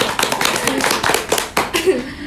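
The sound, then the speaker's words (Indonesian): A short burst of hand clapping before a conversation is wrapped up, quick irregular claps from a few hands, fairly loud, with some speech or laughter blended in underneath before it tapers off. “Kita tepuk tangan dulu yeah.”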